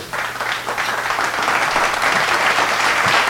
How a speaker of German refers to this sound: Äh, alle euphorisch und klatschen hier. Dein ganz genau. persönlicher virtueller privater Applaus.